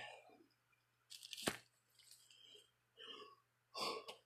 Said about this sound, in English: Oh, I knew that yawn was coming. I was counting it. I was just kind of quietly in my head talking, ah, I'm gonna yawn, I'm gonna yawn, and there it went.